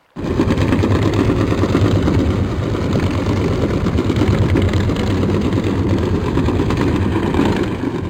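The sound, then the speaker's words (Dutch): A steady, dense low rumble of a cargo ship's engine and propeller, recorded underwater with a hydrophone about 1.5 kilometres away, with a churning, throbbing texture that holds constant throughout without any voices. “Om je toch een idee te geven, de Amerikaanse University of Rhode Island heeft een aantal opnames online gezet van vrachtschepen in het water op anderhalve kilometer afstand.”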